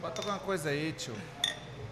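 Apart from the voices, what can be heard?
glasses clinking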